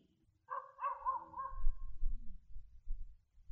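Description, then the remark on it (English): A dog barks a few times in the background, short tonal yelps bunched together over a steady low rumble, with no one speaking. “There is a dog barking in the background.”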